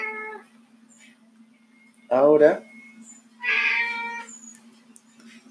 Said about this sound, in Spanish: Em, veo si escuchan el gato.